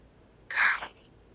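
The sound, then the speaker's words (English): A single short, breathy whisper rises out of near silence, hissy and airy with no clear voiced tone, fading after about a third of a second with nothing else around it. It is one of eerie voice whispers played forwards and backwards, heard while looking out at Idol Island. “And you hear that eerie, similar voice whispers forwards and backwards, strange sounds coming to you, but it's calling to you.”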